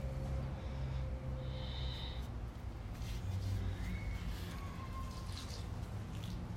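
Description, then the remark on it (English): Water poured from a glass onto the soil in a plant pot, a steady trickle and gurgle running continuously for several seconds with no one talking. “When you pour it in there, it sounds like Zach going pee into your pot.”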